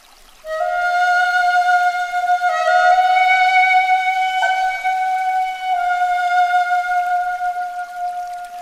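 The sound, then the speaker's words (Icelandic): A flute played by a slender, delicate samurai echoes through the Rokuhara district of Heian, heard by Benkei on the steps of the Kiyomizu temple. It plays alone, holding long, steady notes in a fairly high register, with a few smooth shifts in pitch and a breathy, sustained tone throughout. “Flautuleikurinn ómar um allt Rókuhara hverfi og vekur ímsar kendir í brjósti Benkei, ekki síst þegar hann loks kemur auga á mannin sem spilar.”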